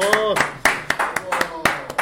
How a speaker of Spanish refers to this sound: Un aplauso